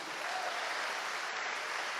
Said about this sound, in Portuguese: Coisa linda, vamos aplaudir o Espírito Santo aqui.